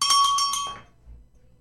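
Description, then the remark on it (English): A small bell rings with four or five quick, bright metallic strikes in rapid succession, then its high, clear tone fades away into quiet within a second. “I'm I'm gonna let that bell go.”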